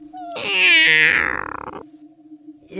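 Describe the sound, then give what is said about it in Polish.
A single long, loud cat meow with a rising then falling, drawn-out wail, ending in a rough, fading tail; a faint steady hum sits underneath. “Wy też słyszycie kota?”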